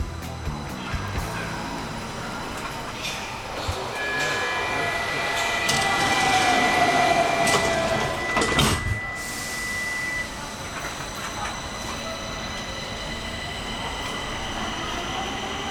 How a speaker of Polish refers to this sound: Pociąg szarpnął lekko i ruszył przed siebie